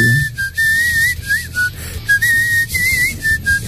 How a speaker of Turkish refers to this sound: Ağzıyla ne yaptınız ıslık ya? mı yapıyor? Islıkla. Islıkla hoş.